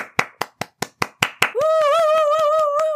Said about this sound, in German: Ein Applaus bitte.